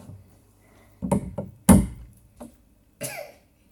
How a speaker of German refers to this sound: Äh, ich habe gerade den Löffel abgeklopft und dabei Couscous in der Wohnung verteilt.